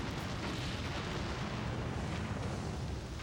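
A big explosion that makes the ground shake roars as a deep, sustained rumble, dense and steady for a few seconds with heavy low-end and broad noise, and no voices.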